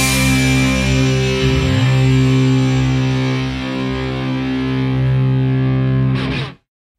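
A loud, heavily distorted electric guitar chord rings out and sustains with a thick, buzzing tone, then cuts off abruptly at the end of a punk rock song.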